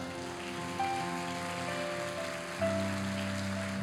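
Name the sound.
audience applauding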